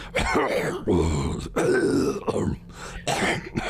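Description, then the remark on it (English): A voice imitates wet, phlegmy coughing: several throaty, gurgling bursts in a row, fairly loud, separated by brief pauses. “you hear uh, almost wet coughs that emerge from it too, like.”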